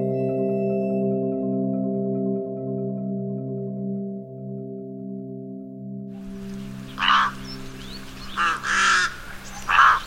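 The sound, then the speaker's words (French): A steady, humming musical drone fades out, giving way to a flock of rooks, harsh cawing calls in loud, repeated bursts with softer chattering between them. “Ce que vous entendez, ce sont des cris, des bavardages de corbeaux freux.”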